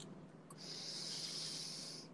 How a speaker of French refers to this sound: Alors, on peut commencer à fermer les yeux ensemble et on va prendre une grande respiration.